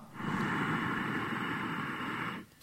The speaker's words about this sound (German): Nochmal das Grundprinzip bei Ujjayi ist, beim Einatmen schließt man die Stimmritze leicht und erzeugt dann einen sanft hörbaren Hauchklang.